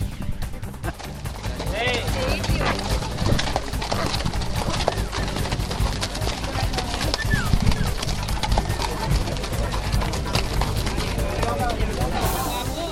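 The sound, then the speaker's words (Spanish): Horse hooves clip-clop steadily on a street during a horse march that drew a large crowd on a fine day, with voices and general bustle mixed in throughout; the hoofbeats are continuous rather than isolated. “¿Cómo se llama tu caballo? Bombón.”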